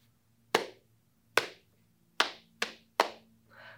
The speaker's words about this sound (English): Who is this I hear? Deep down in the earth, hacking and cracking the rocks and the stones.